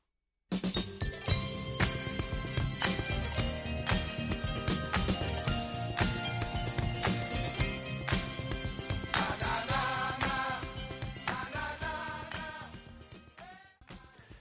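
A 1960s pop song recording plays loud and full, with a steady driving beat, layered instruments and singing, running continuously before fading out near the end.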